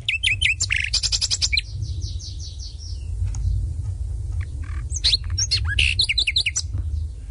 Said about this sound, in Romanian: Și privighetoarea roșcată, vorbăreața familiei.